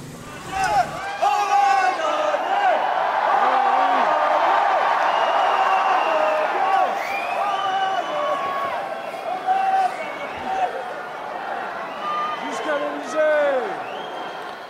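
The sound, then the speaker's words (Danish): A large, excited crowd of Le Pen supporters chants the short French victory slogan 'on a gagné' (we have won) over and over, many voices shouting together loudly and continuously, with cheers and scattered yells rising throughout. “det, som de står og, og, og misser, det er jo, vi har vundet, og nej gagné, øh, Le Pens tilhængere”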